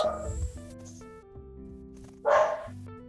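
A dog barks twice, a loud close bark at the start and another about two seconds later, over a steady low humming tone that runs beneath the whole clip.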